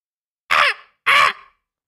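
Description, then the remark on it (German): A voice imitates a raven with two loud, harsh caws in quick succession, each cut off sharply before a brief trailing rasp, with silence around them. “Ja, es soll ein Rabe sein tatsächlich.”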